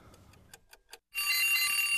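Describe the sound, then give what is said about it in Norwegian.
A short alarm jingle: a few quick ticking clicks, then a sudden loud, bright ringing alarm that blares steadily to the end. No one speaks. “SpaceX-alarm.”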